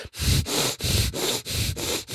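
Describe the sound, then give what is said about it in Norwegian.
A voice imitates a baby boy's heavy, labored breathing as he breathed that morning and in the night: about five loud, rough breaths in a steady rhythm, each a noisy rushing wheeze separated by brief pauses, with no talking. “Så pusta han sånn voldsomt tungt, sånn”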